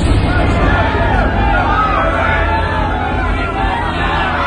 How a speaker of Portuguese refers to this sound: Então enviaram a arca da aliança para a cidade de Ecrom. Quando a arca chegou lá, o povo começou a gritar.